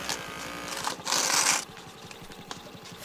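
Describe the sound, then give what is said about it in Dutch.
A small receipt printer in a scanning device whirs out a slip after a big red toy truck is scanned, a fast, steady mechanical chatter with a louder hissing burst partway through as the paper feeds, then the rapid ticking continues quietly. “Oh ja, kijk, nu komt er weer zo'n soort bonnetje uit het apparaat.”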